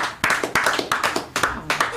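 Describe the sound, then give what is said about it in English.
Soft, muted pocket claps: roughly eight light claps over two seconds in a quick, slightly uneven rhythm, each a short dull slap rather than a sharp crack. “pocket claps.”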